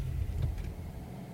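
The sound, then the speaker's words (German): A car engine, just started, rumbles steadily, a low, continuous drone with a faint rattling texture, as the car drives for a quarter of an hour to the village of Hechtheim on a hot heath. “Ich machte mich also auf die Socken, ließ den Motor an, aller Hoffnung auf einen Feierabend im Schwimmbad fahren und knatterte eine Viertelstunde später nach dem Dorfe Hechtheim in der heißen Heide.”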